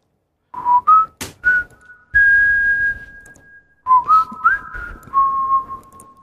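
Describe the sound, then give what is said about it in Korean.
A person whistles a short melodic tune with sustained, wavering high notes and a few quick pitch slides, clear and fairly loud, with no talking over it. “휘파람 한번 해보세요.”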